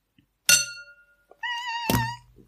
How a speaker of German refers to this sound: wenn man da so mit dem Stift ja. gegen das Weinglas haut